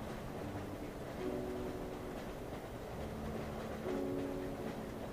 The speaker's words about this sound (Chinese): 听着耳边低沉而规律的火车震动声，车窗外洁白柔和的月光，穿过移动的树影，忽明忽暗地洒在你的床上。